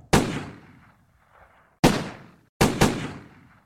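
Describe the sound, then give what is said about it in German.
Twelve loud gunshots crack out one after another across the parking lot of a discotheque beside an expressway in a suburb of Medellín, Colombia, on a July 1994 morning, each sharp report trailing off into a short echoing decay, with a quick double shot near the end and no voices. “Am Morgen des 2. Juli 1994 peitschten zwölf Schüsse über den Parkplatz des El Nino, einer Diskothek an einer Schnellstraße in einem sehr schäbigen Vorort der kolumbianischen Stadt Medellin.”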